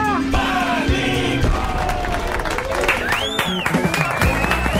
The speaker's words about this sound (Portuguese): Muito obrigado, muito obrigado pelos aplausos, senhoras e senhores, muito obrigado.